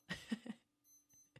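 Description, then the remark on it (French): A wristwatch alarm chirps three quick beeps in a row, then goes quiet except for a thin high tone and one last short beep at the end. Soft. “Ça c'est mon alarme derrière, donc je suis grave euh, fan de ce son. Merci ma montre.”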